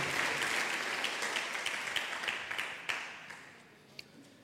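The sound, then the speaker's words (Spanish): A crowd applauds, a dense patter of many hands clapping that gradually thins and fades, with a few sharper individual claps standing out near the end. “Aplaudí fuerte donde estás.”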